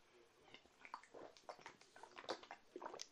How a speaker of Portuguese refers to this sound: ah, bebendo água aqui, garganta tá seca.